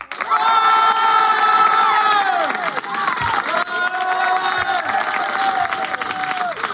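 A loud studio audience at a public radio studio show cheers, whoops and claps continuously to welcome a music artist, with sustained shouted voices rising and falling over steady applause for several seconds.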